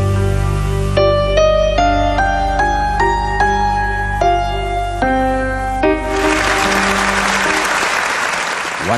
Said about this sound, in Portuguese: agradecimento vem em forma de aplausos demorados e lágrimas.